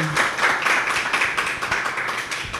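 Steady audience applause, a dense wash of many hands clapping at once, holding at an even, fairly loud level throughout with no voices over it.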